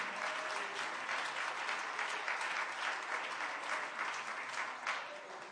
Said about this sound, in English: Oh, give the Lord a hand clap of praise right now.